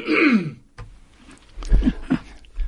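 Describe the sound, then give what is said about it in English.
A short throat clearing, a brief rough rasp followed by a couple of low, muffled guttural bursts, heard alone without any talking. “I had a little cough, and uh, I I was taught well.”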